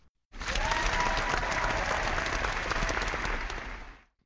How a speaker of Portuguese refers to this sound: É salva de palmas